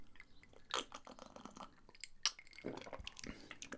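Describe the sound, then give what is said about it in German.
Slurping from a drink with lots of ice cubes, with quiet wet sips and small crunchy clicks and clinks scattered over a few seconds. No one speaks. “ein paar Trinkgeräusche oh ja. machen, damit das auch mhm. klar ist, dass wir was. Schön schlürfen.”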